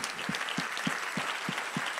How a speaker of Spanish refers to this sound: Así que desen un aplauso a todos ustedes.